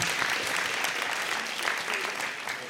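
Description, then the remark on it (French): Sustained applause from an audience in an auditorium, thanking two supporters of a project, a dense steady patter of many hands clapping at an even level throughout, with no one speaking over it. “Merci, vous pouvez les applaudir.”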